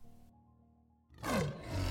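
A lion's deep roar bursts in loudly after a second of low, quiet rumble, a single powerful growling call with a falling pitch that sustains to the end, with no one speaking.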